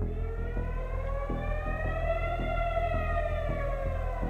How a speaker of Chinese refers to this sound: 但是可能随时随地就会有警报响起。 没错，完全哈马斯不照理出牌，搞不清楚什么时候就会来了。 如果警报响起会怎样？